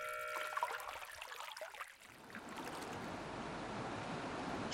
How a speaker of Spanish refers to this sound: Si no me equivoco, se desbordó la presa subterránea. No quiero morir ahogado. Debo subir. El agua sube.